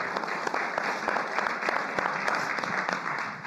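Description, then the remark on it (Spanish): An audience claps steadily after a prayer, giving applause to the King of Glory, a dense sustained applause of many hands with irregular sharp claps poking through, fairly loud and even throughout with no voices standing out. “Denle un aplauso al Rey de la Gloria.”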